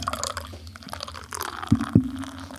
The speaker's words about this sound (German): Ich, habe hier auf die Mikrofonablage mein Glas gestellt.